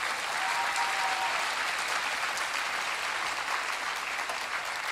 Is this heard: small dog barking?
no